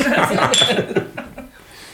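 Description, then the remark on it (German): Glasses clink together in a toast, a bright ringing tap amid chuckles and murmured voices, followed by a couple of softer clinks as the chatter fades. “Okay, Prost.”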